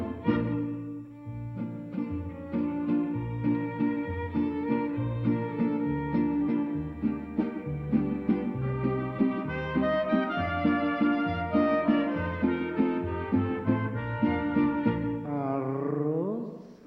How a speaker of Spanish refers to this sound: O pues se escucha el cilindrero trovador.